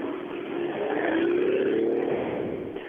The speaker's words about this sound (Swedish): Motorn kokar, han går i nödläge, det hörde ni va?